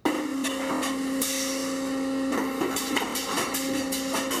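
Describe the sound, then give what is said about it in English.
Steady industrial machinery drones with a sustained mechanical hum, overlaid by rhythmic clanks and clattering bursts from bottle-making machines running continuously, recorded with field recorders at a bottle-making factory. No voices. “This this is the stuff that they recorded at the bottle factory.”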